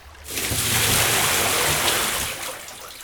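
Liquid gushes steadily from a barrel into a river, a loud, continuous splashing pour that swells quickly, holds for about two seconds, then eases off.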